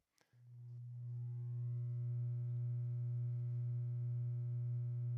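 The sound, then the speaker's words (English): A steady, low-pitched electronic tone sets in after a brief click and drones on unbroken for several seconds. It is a gamma binaural beat from the Dream Inducer module of the Banzai Labs Brainwave app, with a faintly buzzy, pulsing edge and no voices. “We'll start out with gamma here. So here's a gamma.”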